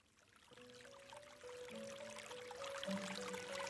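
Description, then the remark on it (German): Soft, steady, quiet trickling water runs throughout, with a slow, gentle melody of sustained tones drifting over it as the sound swells slightly toward the end. “Ich vernahm das leise Plätschern von Wasser zusammen mit einer beruhigenden Melodie”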